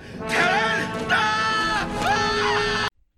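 A man screams in pain while pulling at his shirt, a loud, strained cry that surges three times with wavering pitch, running continuously for about three seconds before cutting off abruptly.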